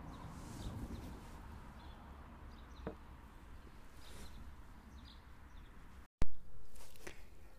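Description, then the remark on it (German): Faint, scattered birdsong chirps in the evening sun on a mountain, with few cars on the road outside, over a steady outdoor hiss, sparse, with a brief dropout and a soft thump near the end. “Der Gesang der Vögel ein verstörender da wenige Autos draußen auf der Fahrbahn.”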